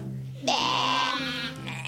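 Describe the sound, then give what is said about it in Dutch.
A single wavering sheep bleat lasting about a second, clear, set over a steady low background tone that continues after it fades. “En twee schapen.”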